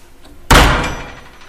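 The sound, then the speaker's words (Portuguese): The lid of a trash bin on the third floor of an apartment building slams shut at 9:37 with one loud, sharp bang that resounds through the whole floor, then a clattering resonance that rings and slowly fades over the next second. No one speaks. “A tampa daquele lixo bateu com tanta força que ressoou por todo o andar.”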